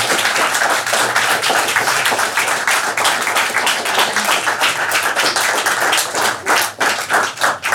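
An audience applauds Pető Péter, author of the book Gyilkos lájkok, many hands clapping steadily in a dense, crackling wash that stays loud throughout and thins slightly near the end. No one speaks.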